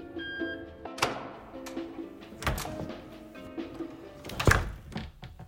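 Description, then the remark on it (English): A woman at a front desk in a waiting room presses a buzzer and the door beside her unlocks and opens: several solid mechanical clunks and thumps over a faint steady electrical hum, with no voices. “asked how she was doing, before pressing a buzzer to unlock the door beside her.”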